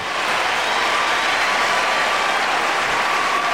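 Steady, dense applause from a large crowd, a continuous wash of clapping that holds at an even, fairly loud level throughout with no voices or pauses.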